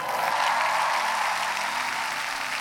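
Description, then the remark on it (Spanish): An audience at a church in Bogotá gives itself a giant round of applause for braving the cold, a steady, dense wash of clapping that holds evenly loud for the whole stretch, with no voices rising above it. “Dese un aplauso gigante.”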